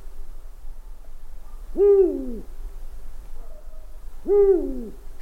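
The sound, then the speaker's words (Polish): Two owl hoots, each a rich, wavering call lasting about half a second, separated by a pause of roughly two seconds, against a faint low background hum with no talking. “A, no oczywiście, tam grałem sowę”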